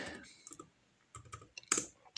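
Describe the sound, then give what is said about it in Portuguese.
Someone types a password with one hand on a computer keyboard to log into email, with a handful of sparse, irregular key clicks separated by short pauses, and one sharper tap toward the end. No one speaks. “Tô digitando com uma mão, velho.”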